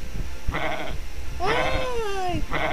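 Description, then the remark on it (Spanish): Several sheep of a flock in a field bleat in turn, with one long wavering bleat in the middle flanked by shorter ones, clear over a low rumbling background. “Hay un campo cerca de aquí en el que veo un animal gordito del que se extrae la lana. Van muchos juntos.”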